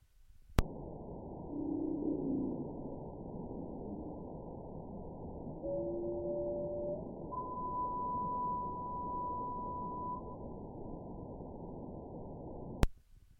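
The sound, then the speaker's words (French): Whale song of the Sri Lanka population type, found in the central Indian Ocean: a few long, steady tonal moans, the last one higher and sustained, set against a constant underwater hiss, with sharp clicks at the start and end. “On a une population, euh, un champ qui est dit du Sri Lanka, qui serait plutôt euh, dans le centre de l'océan Indien.”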